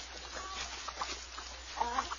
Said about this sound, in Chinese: 一大早，小母鸡洛丽塔就在农夫米歇尔的农场里咯咯咯的大声叫起来：“ 大家都快来啊，动作快点儿！”